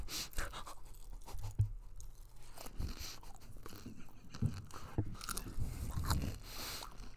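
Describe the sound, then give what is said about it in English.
Potato chips being crunched and chewed, a steady run of crisp, irregular snaps and crackles with a few louder bites mixed in, heard alone with no talking. “These chips are really busting.”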